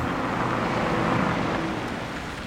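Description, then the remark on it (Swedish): The engine of a red pickup truck swinging into a farmyard rumbles steadily, a broad low growl with gritty noise on top, holding roughly even loudness before easing off slightly at the end. No one speaks. “Och det är en bil som kommer in precis då när vi ska ut en röd pickup svingar in på gårdsplassen.”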